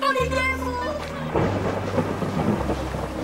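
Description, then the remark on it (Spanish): Heavy rain pours down in a dense, steady hiss while deep thunder rumbles low and continuous underneath, loud, with no voices. “En algunas temporadas llovía incesantemente y era tan fuerte que la lluvia ahogaba todo a su paso.”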